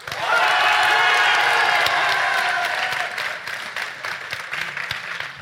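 An audience bursts into loud applause and cheering for the Naître project during a three-second decibel-meter vote, with whoops and yells over a dense patter of clapping, then the noise thins to scattered claps and voices.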